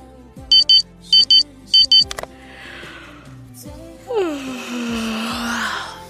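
An alarm clock in a dormitory beeps early in the morning in three quick bursts of high, sharp double tones, waking a sleeper, then goes quiet before a soft breath and a long, drawn-out groaning yawn.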